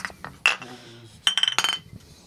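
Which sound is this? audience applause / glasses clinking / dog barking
glasses clinking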